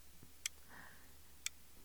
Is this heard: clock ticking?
yes